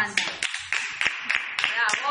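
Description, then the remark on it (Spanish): Steady rhythmic clapping for the LGTBQI+ community, roughly seven claps about a third of a second apart, fairly loud, with voices talking or cheering underneath. “Pero bueno, en cuestión vamos a cerrar diciendo que estamos todos muy orgullosos de ser disidentes y quiero cerrar esto con un aplauso para toda la colectividad LGTBQI+.”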